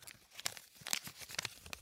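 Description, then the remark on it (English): Dry crackling and crinkling as crumpled-up balls of paper notes are pulled open, a rapid series of sharp rustles and small crisp pops with brief pauses, no voices. “to do some uncrumpling.”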